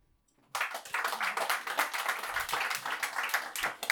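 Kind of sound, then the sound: crowd, audience clapping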